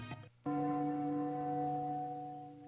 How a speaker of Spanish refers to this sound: Cayó la noche silenciosamente y el reloj del convento de San Francisco marcó las ocho campanadas